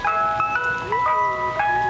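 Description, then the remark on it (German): A bright, tinkling jingle plays a looping chime melody as a Prosecco cart arrives, steady and fairly loud throughout with no talking. “Ich höre da was, ich höre da was, ja. Kommt der Prosecco-Wagen.”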